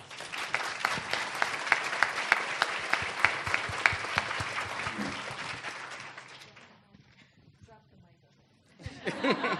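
Audience applause for two panel members at the end of a conference panel discussion: dense, steady clapping for about six seconds that fades out, a brief lull with light chuckling, then clapping picks up again at the end.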